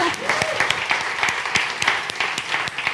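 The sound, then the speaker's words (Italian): A crowd applauds steadily for the young people from Monza, many hands clapping in a dense, continuous patter that fills the whole stretch at moderate loudness, with a faint murmur of voices underneath. “Ah, è vero, ci sono i ragazzi di Monza, facciamo un applauso.”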